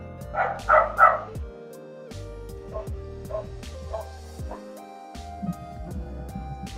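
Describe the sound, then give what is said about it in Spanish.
A dog barks a few times, loud sharp woofs clustered near the start, followed by quieter intermittent sounds and faint tonal background noise. “Yo solo escuché el perro, la verdad.”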